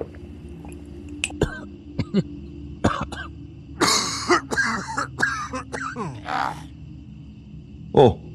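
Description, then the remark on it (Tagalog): A man coughs and clears his throat repeatedly, a rough, raspy burst of hacking in the middle followed by a few scattered coughs. “parang iba na yung tunog ng ubo mo.”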